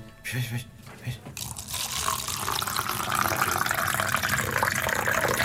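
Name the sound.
water running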